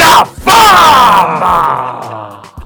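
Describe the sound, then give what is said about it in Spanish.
A loud, drawn-out yell, one host shouting the name of a segment as a long stretched call that slowly falls in pitch and fades, broken by a brief gap near the start. “Sabes lo que ten, las ganas que tenía de gritar eso?”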